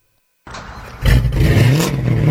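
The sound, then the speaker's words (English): A car engine cranks to life and then revs hard through a loud, throaty Carnage aftermarket custom exhaust, the deep rumble rising in pitch with no one speaking. “Man, that car sounds good. Oh, you know, it's just that Carnage exhaust I got at Troy's Muffler.”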